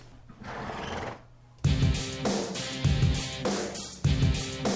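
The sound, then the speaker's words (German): A horse neighs loudly, a long shrill whinny with rhythmic, shuddering pulses, preceded by a softer breathy snort or nicker. “Nimm das Pferd mit.”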